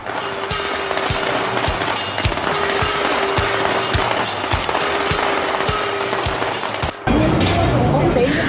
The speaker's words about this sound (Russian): Вот оживленно и шумно в Чайнатаун в Нью-Йорке, дорогие друзья.